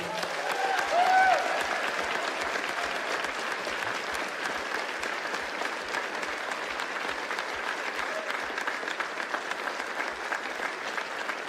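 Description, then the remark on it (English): A large church audience applauds steadily for several seconds to thank a long-serving member going into retirement, a dense, even wash of clapping with a brief cheer near the start, without any speech. “Can you help me thank him real quick?”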